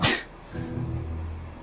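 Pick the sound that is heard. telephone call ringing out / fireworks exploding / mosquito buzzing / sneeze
sneeze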